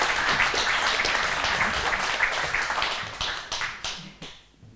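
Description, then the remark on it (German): A crowd at an event in Hondrich applauds to welcome Swiss Radio and Television presenter Sonja Hasler, with dense, steady clapping that holds strong for several seconds, then thins into scattered claps and fades out near the end. “Wollen wir im Klatschen?”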